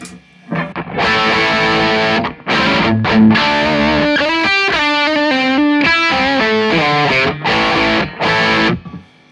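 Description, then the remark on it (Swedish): Overdriven electric guitar played through a Wild Drive overdrive pedal with its gain lowered and some bass cut, playing a run of choppy chords and bright single notes with short gaps, loud and gritty, with no one talking. “vad jag gjorde var att jag sänkte gainen på Wild Drive och höjde gainen på”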